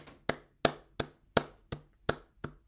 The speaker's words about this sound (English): And then the next time you say that sentence, you're clapping the rhythm of dragon. So now you're going,